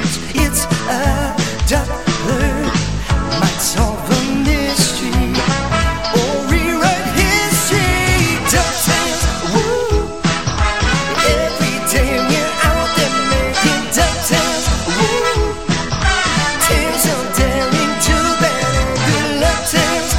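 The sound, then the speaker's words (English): Loud, upbeat karaoke singing of a cartoon theme song over a full backing track, the voices belting the melody continuously for the whole stretch with dense, driving instrumentation. “So I'm hitting them with DuckTales, uh, the yeah. theme song.”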